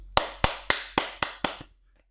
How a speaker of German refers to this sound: Es waren extrem viele am Start, es haben sich alle gut benommen, also kann man auch mal klatschen.